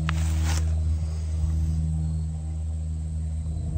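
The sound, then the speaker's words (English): A steady, low engine drone hums continuously throughout, fairly loud and unchanging, with a brief burst of hissy noise right at the start and no voices. “Whatever arises, the noise of the engine, whatever arises up in you, just simply notice it.”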